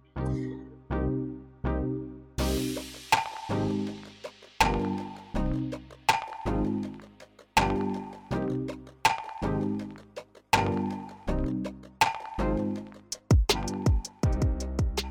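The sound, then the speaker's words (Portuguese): The bell of a hometown church in Brazil rings out for the Ave Maria at six thirty in the evening, Brasília time, a steady series of loud metallic strikes at several pitches, each ringing on and overlapping the next, with no voices. “Marcam exatamente seis e meia pela hora de Brasília e o sino da minha igreja da cidade natal, cá do Brasil, toca, badala, a anunciar, a anunciar a Ave Maria que vem em seguida.”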